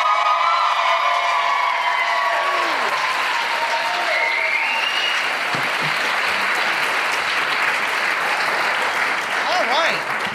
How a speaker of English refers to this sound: So please join me in clapping an 11 size applause for Dr. Andy Roark.